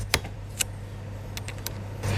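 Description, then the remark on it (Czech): An automatic sample changer of a Mössbauer spectrometer, set in the gap between two massive cylinders, whirs with a steady low hum, punctuated by a few sharp mechanical clicks and clatters as it moves an iron-containing sample into place. “Tady v té mezeře máme umístěný automatický výměník na vzorky.”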